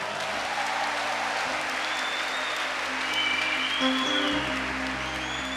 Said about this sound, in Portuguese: E aplauda a fé do seu irmão.